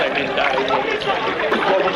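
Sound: water poured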